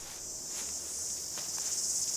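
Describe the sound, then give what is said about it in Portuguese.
A steady, high-pitched chorus of cicadas buzzes continuously, filling the background at a moderate level with no pauses, and no one speaks. “Enfim, ela começou a ouvir a orquestra das cigarras.”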